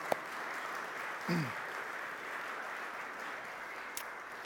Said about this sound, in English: I don't know actually what to call you, but uh, it sounded fantastic, and I think they can have a round of applause right at the beginning.